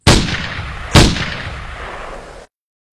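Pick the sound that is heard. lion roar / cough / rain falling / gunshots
gunshots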